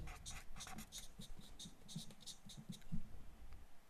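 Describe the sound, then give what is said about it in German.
A pen scratches quickly across paper in short, irregular strokes, fairly quiet, with no talking over it, as quiz players write down an answer. “Da geht der Stift los, da wissen die Jungs auch sofort Bescheid.”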